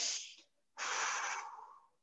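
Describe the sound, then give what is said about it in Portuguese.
A person with eyes closed takes two deep, airy breaths while focusing on breathing to practise self-hypnosis: a short exhale or inhale, a brief pause, then a longer, steady rush of air that slowly fades. No talking. “Fechei o olho. Vou focar na minha respiração.”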